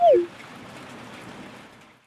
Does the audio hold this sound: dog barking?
no